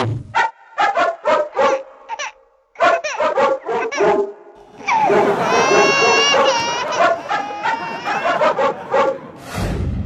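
A dog barks in a quick run of short, sharp yaps with brief pauses. A dense, shrill wash of crying-like and laughing sounds follows and largely covers the barking.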